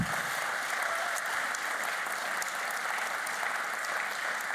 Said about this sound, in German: Und deswegen haben sie einen großen Applaus verdient und viel Respekt.